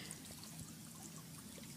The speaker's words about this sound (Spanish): O sea, escuchar agua corriendo te da ganas de hacer pis.